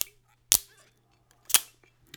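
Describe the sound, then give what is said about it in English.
A zip strip is torn off a bottle in two sharp ripping snaps about a second apart, with faint crinkles and ticks between and after them. “It does have a very handy for me uh, zip strip that's noticeable, so let's pull this off.”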